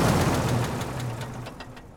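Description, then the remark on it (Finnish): A heavy armored tracked military vehicle's engine rumbles loudly with rhythmic clattering after a drive, then its low drone cuts out and the noise winds down as the engine shuts off. “Moottori hiljeni ja muut alkoivat tekemään ajon jälkeisiä tarkastuksia, kun itse menin luutnantin juttusille.”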